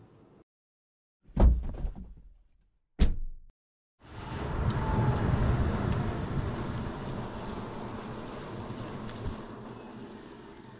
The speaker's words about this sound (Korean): 이 소리는 기후 위기를 심화시키는 내연기관차가 매캐한 매연을 뿜으며 지나가는 소리입니다.